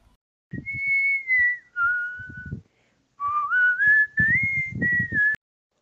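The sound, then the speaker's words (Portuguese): A grandmother whistles a simple melody, two clear phrases of sustained, gliding notes separated by a short pause, with some soft low rustling underneath. “Ela escolheu os sons dos assobios de sua avó, que é a pessoa que vai narrar esse microconto.”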